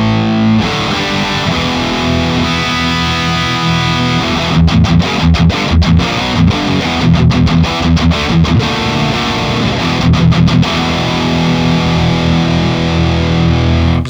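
Heavily distorted six-string electric guitar on a high-gain setting, playing rock: thick sustained chords with bursts of choppy, muted rhythmic strumming in the middle and near the end; loud and dense, with no talking.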